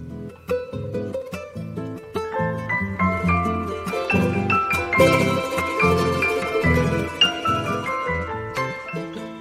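Lively instrumental folk tune played as a radio theme, with bright, rapidly plucked strings over full chords in a steady dance rhythm, moderately loud throughout with no voices.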